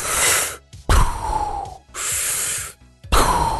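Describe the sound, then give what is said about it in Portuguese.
A voice imitates a man's loud, mechanical respirator-style snoring while asleep, likened to a breathing machine or a Darth Vader mask: four harsh, hissing breaths alternating in and out, forceful, with short pauses between them and no talking. “Ele parecia aquelas máquinas de respiração, sabe? Que você, ele, ele puxava e soltava o ar muito Máscara alto.”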